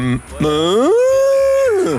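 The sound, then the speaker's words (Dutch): A single loud cow moo: a drawn-out bellow that swoops upward in pitch, holds steady for about a second, then trails off. No talking. “Ik praat met koeien. Ja? En dan zeg ik, jongens, meiden, kom op, we gaan naar binnen. En dan praten ze terug met mij.”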